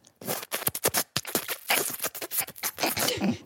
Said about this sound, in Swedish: Han sätter sig mitt emot mig och börjar sörpla på sitt kaffe. Högt.